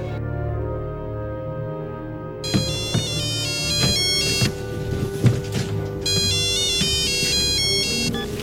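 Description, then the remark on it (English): A telephone rings with a bright, repeating melodic ringtone, steady and fairly loud, with dense tonal layers and a few soft knocks underneath; no one speaks. “Charlie, take the phone to Mommy now!”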